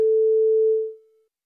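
telephone call tone

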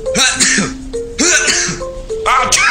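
sneeze

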